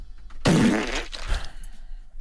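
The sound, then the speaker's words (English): A loud, sputtering fart sound effect lasting about a second, with a raspy, buzzing low tone followed by a shorter trailing burst. “How can I even get to the message or the messenger when the actual content causes rectal turbulence?”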